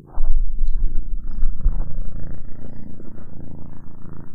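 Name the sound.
cat purring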